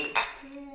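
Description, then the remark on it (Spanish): A single bright clink of glasses touching in a toast, fairly loud, followed by a short ringing tone that fades out. “Salud, chicos. Salud.”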